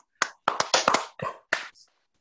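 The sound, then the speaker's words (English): A brief round of hand clapping by several people clapping together after a countdown of three, two, one: a handful of sharp, crisp claps in quick, slightly uneven succession, moderately loud, then a faint final tap before silence. No voices. “I'm watching you clap that in.”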